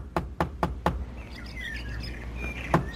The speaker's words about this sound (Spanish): Apresúrate, porque si no lo haces, quien golpea va a tumbar la puerta.